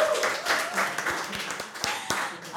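A short burst of hand clapping, a quick irregular patter of sharp claps at moderate loudness, with some voices and laughter mixed in underneath.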